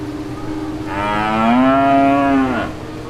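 A cow lets out one long, loud moo, a low drawn-out bellow whose pitch rises slightly before cutting off, heard over a faint low hum with no voices.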